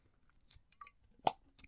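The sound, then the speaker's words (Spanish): Someone takes a little sip of water, with quiet wet mouth noises and a few sharp clicks of swallowing. No one speaks during it. “Vamos a tomar un poquito de agua porque ya la neta uno se deshidrata acá.”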